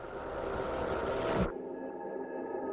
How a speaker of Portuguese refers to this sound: Quase 100 anos-luz de casa. Ouça uma das primeiras transmissões de rádio apenas um sussurro.